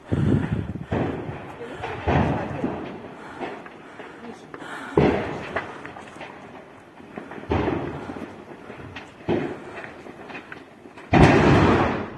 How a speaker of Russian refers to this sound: На многочисленных видео очевидцев с места событий хорошо видны и слышны вторичные взрывы боеприпасов.